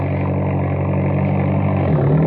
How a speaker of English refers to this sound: Oh, we go as fast we can in the Jeep, then we'll ditch them.